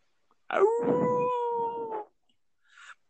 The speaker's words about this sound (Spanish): un aullido. Que en verdad helará la sangre de ustedes.